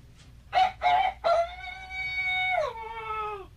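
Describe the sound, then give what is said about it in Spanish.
A man imitates a rooster crowing once, loud: three short choppy notes, then a long drawn-out wail that sags and falls off at the end, with no other voices. “¿Oyó el gallo cantar, hombre?”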